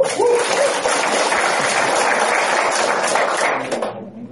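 An audience applauds, a dense, steady wash of many hands clapping that holds for about four seconds and then quickly fades away.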